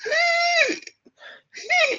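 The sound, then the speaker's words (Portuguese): A voice mimics a baby's gasping breaths inside the uterus (intrauterine gasping): two strained, voiced gasps with a softer breathy one in between, fairly loud. “o que acontece é um mecanismo que em inglês se chama gasping intraútero”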